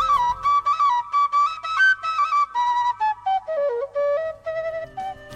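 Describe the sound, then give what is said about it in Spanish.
A distant quena flute, played by someone approaching, plays a breathy, wavering melody of short phrased notes, stepping mostly downward in pitch, with no voices present. “De pronto, el lejano sonido de una quena le advirtió que alguien se acercaba.”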